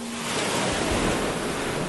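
ocean waves and surf

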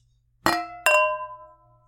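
wine glasses clinking

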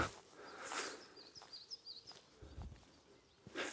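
birds singing

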